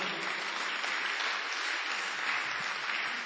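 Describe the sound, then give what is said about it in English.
An audience claps their hands for the Lord in a steady, dense wash of applause that holds at an even loudness throughout, with no voices standing out. “That's why, woman, clap your hands for the Lord.”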